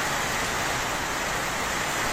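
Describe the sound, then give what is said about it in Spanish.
Steady, dense hiss of heavy rain from an electrical thunderstorm with strong winds in San Luis Río Colorado before dawn, with a constant windy rush underneath, unbroken and fairly loud for the whole stretch, with no voices. “SORPRENDE TORMENTA ELÉCTRICA CON VIENTOS FUERTES EN SAN LUIS RIO COLORA”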